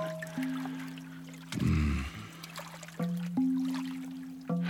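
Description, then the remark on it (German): Shower water jets spray in a steady hiss onto a person's back over a low humming drone, with a short heavier gush partway through. No one speaks. “Die Düsen treffen an genau den richtigen Stellen auf meinen Rücken.”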